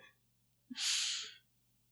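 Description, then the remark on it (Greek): A short low burp, then one breathy, hissing cough burst lasting about half a second, fairly loud against an otherwise quiet background with no talking. “Μισό λεπτό ρεύομαι. Βήχω κιόλα.”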